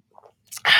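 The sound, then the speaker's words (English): A short sip of coffee: a faint soft sound, a brief airy hiss, then a loud slurping rush of breath and liquid that carries to the end. No one speaks. “Oh, now we got to take a sip of our coffee and mentally brace ourselves for this.”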